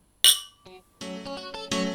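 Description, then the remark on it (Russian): Glasses of rosé wine clink together a few times in a toast, each bright, sharp strike followed by a sustained ringing tone, with no voices. “Ну, давай поднимем тогда бокальчик розе за ценности.”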